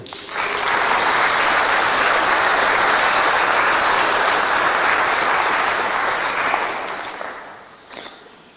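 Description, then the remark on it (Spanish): An audience breaks into loud, dense applause for the mercy of God that holds steady for several seconds, then tapers off and fades out with a few last scattered claps. “Por eso quiero dar un aplauso a la misericordia de Dios.”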